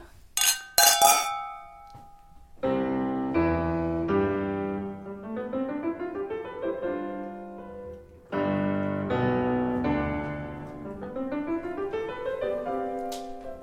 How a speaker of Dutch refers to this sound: We gaan een keer klinken ook, hè?